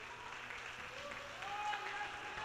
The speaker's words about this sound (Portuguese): Pode aplaudir.